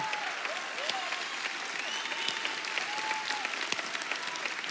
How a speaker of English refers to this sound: slow clap. Just get the slow clap. Slow clap, stank face for you.